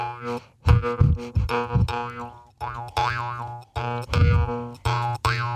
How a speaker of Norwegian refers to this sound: Mm, munnharpe. Skal vi Ja. se da, Det er jo det symbolet på, som er på Spellemannsprisen.